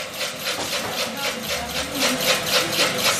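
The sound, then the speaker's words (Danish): A plastic shredding machine used to shred plastic trash runs steadily and loudly, its rapid, regular mechanical pulses grinding and rattling with no pause. “So this is the machine used for shredding the trash.”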